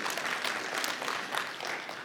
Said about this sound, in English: I believe you led the clap on that, didn't you?